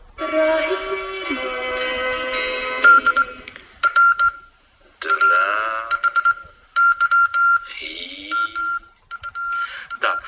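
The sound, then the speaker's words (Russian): Morse code sent by a telegraph operator at a post office, as demonstrated in a 1979 radio programme: short and long electronic beeps at one steady pitch, keyed on and off in irregular groups, mixed with other droning and warbling tones. No one speaks. “1979 году в одной из радиопрограмм демонстрировали работу телеграфиста на почте.”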